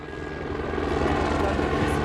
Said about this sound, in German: Die Stechmückenbekämpfung erfordert schweres Gerät. Gerade landet ein Helikopter am Rhein bei Lampertheim. Der Pilot hat am Morgen schon mehrere Brutstätten zwischen Speyer und Mannheim aus der Luft angesteuert.